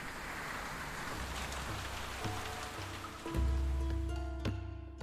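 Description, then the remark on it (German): Steady rain patters and drips onto a hard surface like a roof, with scattered sharper drops over a soft hiss. A low, sustained hum underneath swells louder partway through. “Ich habe mir versucht vorzustellen, wie es wäre, wenn da innen ein Feuer brennen würde. Wie wäre da zu sitzen, zu essen und zu trinken und einander Geschichten zu erzählen, bis der schlimmste Regen vorbei ist.”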